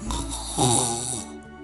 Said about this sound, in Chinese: 原来有一个小精灵睡着了，他在梦中偶尔打起了响亮的呼噜。这就是茱莉亚听到的咕噜噜的声音。